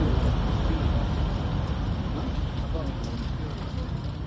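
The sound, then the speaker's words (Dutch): A convoy of white Toyota Land Cruisers drives across the Iraqi border into Syria, heading for a Kurdish compound in northeast Syria, a steady, fairly loud rumble of engines and tire roar on the road that holds level throughout without breaks. “Het is 5 juni en er rijdt een stoet witte Toyota Land Cruisers de Iraakse grens met Syrië over richting het noordoosten van Syrië naar een Koerdische compound.”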